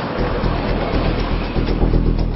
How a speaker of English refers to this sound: kind of exhilarating to do that speed in this car.